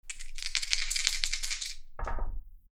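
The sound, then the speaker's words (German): Dice are rolled in a naval-combat board game, clattering and rattling for nearly two seconds in a dense run of sharp clicks, then a brief, heavier tumble as they come to rest showing 4 and 2. No one speaks. “Bitte um einen Würfel. 2 wie 6 bitte.”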